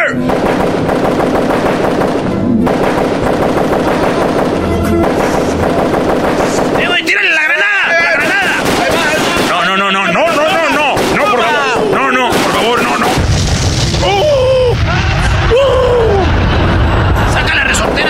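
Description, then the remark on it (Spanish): Rapid bursts of loud gunfire crackle and boom, with machine-gun rattles and heavy blasts in a dense, chaotic barrage, while voices shout and talk underneath. “muy violento, otra vez balazos.”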